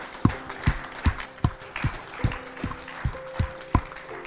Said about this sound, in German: Lass uns der Person mal einen absolut fetten Applaus geben, weil es ist das Beste, wofür man sich entscheiden kann.